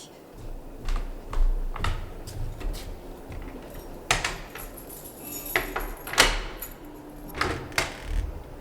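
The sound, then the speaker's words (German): A door is unlocked and eased open a crack to hand something through the gap: metallic clicks and rattles of a key and latch, a few sharp knocks, then a soft creak, with no voices. “Aber ich kann es Ihnen ja durch den Türspalt reichen.”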